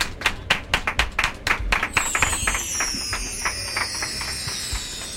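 A round of clapping for a person after a magic trick: a few sharp, distinct claps at first, then many hands join in a dense, steady patter that holds at a moderate level to the end. No one speaks.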